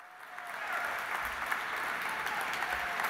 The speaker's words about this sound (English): Oh, he's here tonight. Let's give Michael Berenbaum a big round of applause.